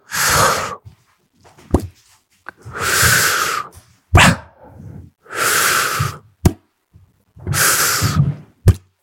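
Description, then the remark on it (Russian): A voice imitates a man's loud, strange snoring: four long, harsh breathy rasps in a steady rhythm, each followed by a short sharp snort or click, with no talking. “хочу рассказать, что Александр Поливанов очень странно храпит”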